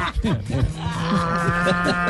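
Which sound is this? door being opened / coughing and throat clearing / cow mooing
cow mooing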